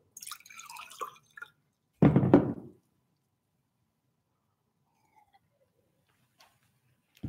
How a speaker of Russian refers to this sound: сейчас я попью воды